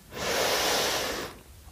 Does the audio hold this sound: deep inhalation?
yes